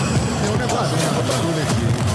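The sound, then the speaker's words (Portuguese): A crowd of football fans cheers and chants in the corridor just outside, a dense, continuous roar of many overlapping voices that stays loud and steady throughout. “Estão ah. vibrando aqui no corredor, deixa eles entrarem.”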